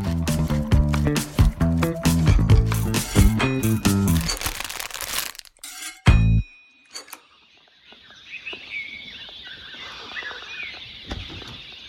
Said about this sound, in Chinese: 这是云南一座咖啡庄园清晨七点的鸟鸣声。